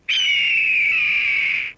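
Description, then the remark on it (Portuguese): A single drawn-out falcon cry, a loud, piercing screech that holds steady and slowly falls in pitch over nearly two seconds, alone with no talking. “Estás a ver como o falcão consegue ter controle completo da inclinação?”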